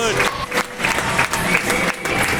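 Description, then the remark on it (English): A crowd of fans cheers and applauds loudly and continuously at an Australian Women's Ice Hockey League game after the Adelaide Rush's first ever win, against the Brisbane Goannas, with shouts and whistles rising over sustained clapping. “Some very noisy fans and one hell of a happy team out there.”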